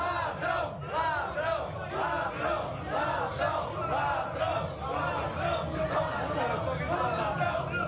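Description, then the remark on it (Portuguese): A large protest crowd chants and shouts together, calling "ladrão" (thief), in a dense, continuous roar, voices rising in rhythmic waves that fill the whole stretch without a pause. “Palavrão que eles estão falando, não, não? É isso? Será que eu estou ouvindo?”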